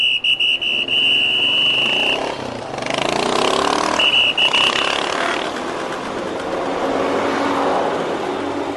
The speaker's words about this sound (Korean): 갑작스레 열린 집회로 인해 광화문 거리는 교통체증이 한창이었다. 교통경찰들이 분주히 뛰어다니며 차량을 통제했다.